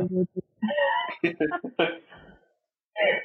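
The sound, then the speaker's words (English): A needy cat meows repeatedly in the background in a string of drawn-out, whiny calls with short gaps, then one more meow after a brief pause, clear. “uh, yeah, that's that's my incredibly needy cat in the background.”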